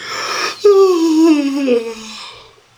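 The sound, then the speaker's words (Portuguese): A person voices a huge scaly creature's loud yawn as it stretches: a breathy inhale, then a long, drawn-out groan that slides downward in pitch and fades, alone. “De repente, a enorme coisa escamosa se esticou e deu um terrível bocejo.”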